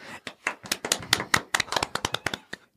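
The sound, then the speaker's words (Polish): A quick run of sharp handclaps, about twenty in under three seconds, slightly uneven in rhythm and fairly loud, with no voices over them. “Brawo! Klaskamy bez użycia rąk.”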